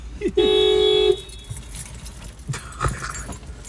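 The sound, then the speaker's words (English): A car blasts its horn in a single loud, steady honk lasting under a second, followed by quieter rustling, clattering and faint voices in the background. “me know if that fucking car drives by.”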